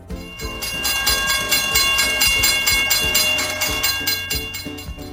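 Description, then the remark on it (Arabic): A train arrives at a station, rolling in loud, its wheels beating a steady clickety-clack over the rail joints beneath a sustained high metallic whine, with no voices. “محطات القطارات عملت بها الأجراس مذيع ينبئ عن قرب دخول القطار أو قرب تحركه مغادرا”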